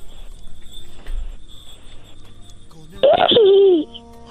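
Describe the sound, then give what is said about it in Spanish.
A child imitates a horse with one loud whinny that sweeps downward in pitch and lasts under a second, following a few seconds of quiet background noise. “Muy bien, ahora puedes hacerle como un caballo.”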